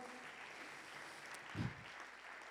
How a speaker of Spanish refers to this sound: Dele palmas al Señor, dele fuerza al Señor.